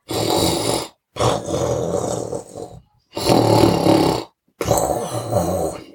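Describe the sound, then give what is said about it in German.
A dog, Pippa, snoring loudly while lying on a bed against a person's feet and shoulder: four rasping, rumbling breaths in a steady rhythm with short quiet pauses between them. “Yoshi und Pippa und Otto haben sich an meine Füße und an meine Schulter gelegt, und die Pippa hat so geschnarcht.”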